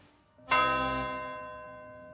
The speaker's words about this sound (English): And he takes one scaled hand and points it like a gun at the bell and lowers his thumb like the hammer of a revolver and a single blue dart shoots out and rings the bell.